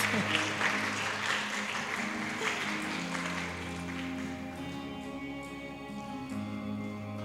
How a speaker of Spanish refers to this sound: Así que los hermanos no son rebeldes sin causas, nada más nos ayudaron para la ejemplificar. ¿Por qué les damos un aplauso?